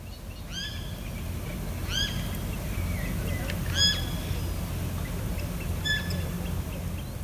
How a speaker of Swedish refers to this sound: Det är ju andra fåglar där också som ja, man kan höra kvittra. Ja, där sjunger en rörsångare, så det är kanske en bladvassrugg eller någonting sånt.